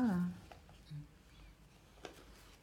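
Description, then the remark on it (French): A voice trails off at the start, then a few faint, scattered crinkles and soft taps of small handwritten paper scraps from a travel notebook being handled, with one sharper rustle near the end. “Donc, euh, il y a des il y a des récits, enfin, il y a certaines parties qui sont écrites sur des petits bouts de papier, tu vois, comme ça.”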